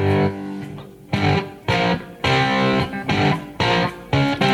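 A loud, heavily distorted electric guitar plays a chunky rock riff in choppy, repeated bursts with short gaps between chords, close and dense with no voices.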